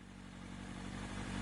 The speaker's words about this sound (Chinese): 远处传来一阵摩托车的马达声，往这边开了过来。